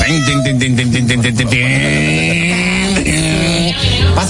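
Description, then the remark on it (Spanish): A man's voice imitates a lion's roar: a loud, sustained, strained vocal growl that rises, wavers and slides in pitch for about four seconds, with no other sounds. “Lo que pasa es que allá, por ejemplo, los leones sonaban así. Aquí los leones suenan”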